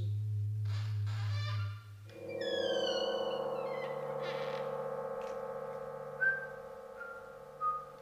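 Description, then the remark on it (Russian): A radio receiver, just switched on, being tuned between stations without finding anything suitable: a low hum gives way to sliding whistles and steady droning tones, with a couple of brief squeals near the end and no voices. “Вот включила приемник, но не могу поймать ничего подходящего.”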